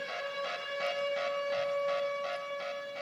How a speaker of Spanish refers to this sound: Pero, tenemos, pero le tenemos un sonidito aquí, mira, mira, mira. Que suena la alarma para este jugador.